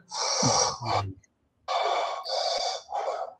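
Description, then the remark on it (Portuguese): A voice imitates a patient's heavy, forced breathing through a ventilation mask, Darth Vader style: two loud, hissing breath cycles, with a brief voiced rasp at the start and a short pause between them. “Respiração forçada.”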